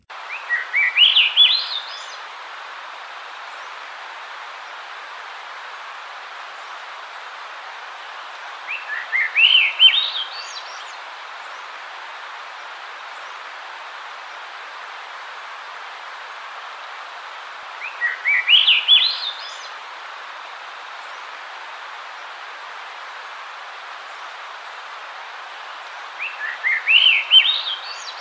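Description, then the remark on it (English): A Swainson's thrush sings four separate flute-like phrases, each spiraling upward in pitch, spaced several seconds apart over a steady background hiss, with no talking. “So that was a Swainson's thrush.”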